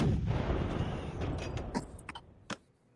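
A deep, rumbling cannon blast sound effect, played as the recruiting cannons for a Wisconsin Badgers commitment, fills the opening, followed by several sharper, fainter reports trailing off into an echo.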